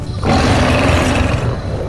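A loud, deep animal roar bursts in after a brief pause and holds steady for over a second and a half, rumbling and forceful, with no talking.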